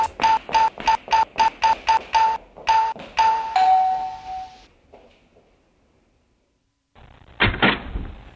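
A quick run of electronic beeps, like a door keypad, ends in a longer tone. After a silent pause there's a short clunk and rattle as the front door is opened to let someone in.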